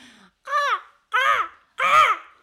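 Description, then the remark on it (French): A person imitates a crow with three loud, harsh, nasal caws, evenly spaced with short pauses between them, each one rasping and slightly falling in pitch. “Tu fais le cri du corbeau, et est-ce que tu peux nous faire une démo”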